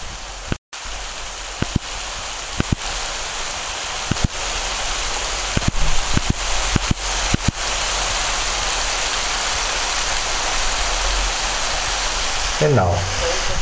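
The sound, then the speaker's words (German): Steady rain hisses outdoors as a dense, even wash of noise, recorded on a device held out into the rain, with occasional sharper drips or taps and a brief dropout near the start. “So klingt der Regen.”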